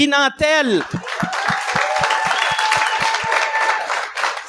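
An audience breaks into loud applause that holds steady throughout, with a rhythmic clap beat cutting through the crowd noise, a sliding vocal whoop at the start, and a few thin whistles.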